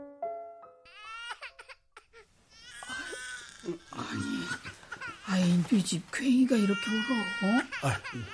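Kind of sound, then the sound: human body sound, baby crying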